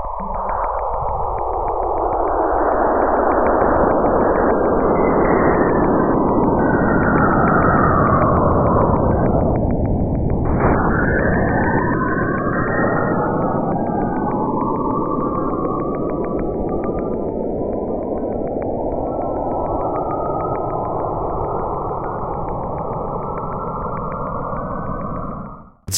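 Eerie electronic whistling tones sweep down and then rise again in pitch over a steady hissing drone, sonified plasma waves from the interaction between Saturn and its moon; continuous, loud and alone, with no voices.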